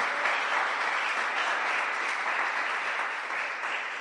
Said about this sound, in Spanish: ¿Cuántos pueden darle un aplauso a Dios por eso?